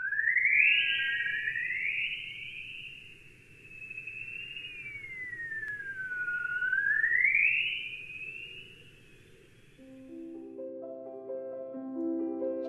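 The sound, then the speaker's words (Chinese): Sonified signals detected by the aircraft, from high-energy particles from the Sun trapped by Earth's magnetic field: eerie, whistling tones that glide up and down like alien birdsong over a low, steady hiss, with stepped synthetic notes entering near the end. “接下来，这架飞机检测到的声音是来自太阳的高能粒子，它们被地球的磁场捕获，从而产生了这些类似于外星鸟鸣叫的声音。”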